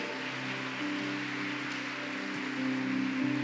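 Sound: audience applauding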